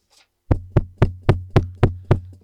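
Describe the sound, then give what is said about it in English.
Seven loud, evenly spaced bangs on a roller garage door, each hit booming with a low, rattling ring that lingers briefly before the next. No voices are heard. “There's a loud banging on the roller garage door.”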